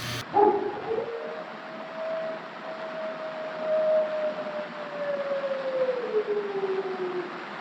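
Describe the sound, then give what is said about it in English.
Wolves howl in one long, drawn-out wail that holds steady and then slowly sinks in pitch, set against a constant hissing background with no talking. “Listen to them. Children of the night. What music they make”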